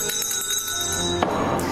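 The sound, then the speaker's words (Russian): A man picks up a small hand bell and rings it with quick repeated shakes, its bright metallic tones lingering and overlapping, then fading under a soft rustling noise near the end. Moderately loud. “Берет колокольчик.”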